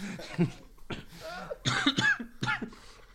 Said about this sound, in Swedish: Du hostar lika mycket som en gubbe som behöver Viagra.